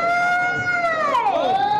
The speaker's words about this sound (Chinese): 这是哪儿敲锣了呀？我得问问。